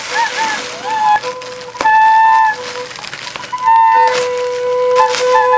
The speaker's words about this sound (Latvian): Miskastes maisa kļūst par dūdu maisu, pilspalva kļūst par tūbiņu, ar kuru maisa tiek piepūsts. Savukārt abas stabulas vai blokflautas rada mūziku. Un mums ir arī piemērs, kā izklausās šādi kādas miskastes dūdas.